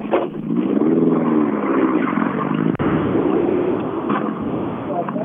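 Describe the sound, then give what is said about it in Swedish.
A rally car engine revs hard, its loud, steady roar rising and falling in pitch, with one brief sharp break in the middle before the engine note carries on, as Liljegren comes in at the finish line with a Nibus 240 rally car. “Eh, Liljegren kommer in i mål med Nibus 240.”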